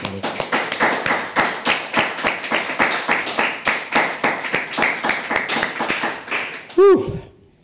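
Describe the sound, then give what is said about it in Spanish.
A crowd claps together in a steady, even rhythm, giving a loud round of applause to the Almighty, sharp beats repeating about three times a second, before the clapping breaks off with a short rising and falling tone. “¿Por qué no le otorgamos un fuerte aplauso al Todopoderoso”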